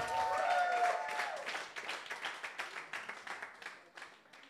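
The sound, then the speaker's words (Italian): An audience at the Shout 2022 gathering bursts into applause for the Holy Spirit, a dense wash of clapping with a few cheering voices at first, then thins into scattered, rhythmic individual claps that fade out over several seconds. “Facciamo un applauso soprattutto allo Spirito Santo.”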